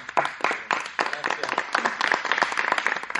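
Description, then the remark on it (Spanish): A group bursts into applause to close a discussion session, many hands clapping in a dense, steady patter that stays fairly loud throughout, with a faint murmur of voices mixed in. “Esto fue muy bueno, así que un aplauso y terminamos.”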